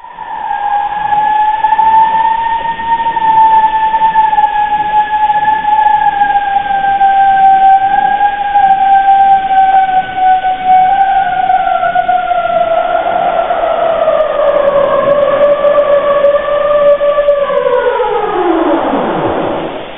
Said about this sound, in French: La réponse était bien iceberg. C'est en fait un glacier qui se sépare en iceberg. Le son a dû être accéléré 30 fois